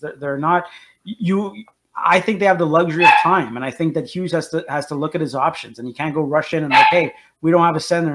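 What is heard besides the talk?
dog barking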